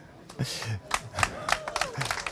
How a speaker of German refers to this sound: Sehr schön, da gibt es Applaus.